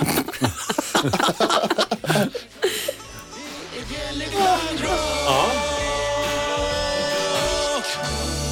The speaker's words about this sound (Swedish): Det där var Bjelle Klang och lite munspel där på slutet som alltså, ni kanske hörde. Ja, som du har jobbat som gatumusikant och kan ju bara jullåtar på, på munspelet.